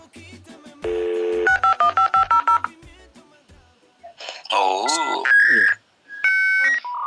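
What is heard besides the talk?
dial-up modem dialing tones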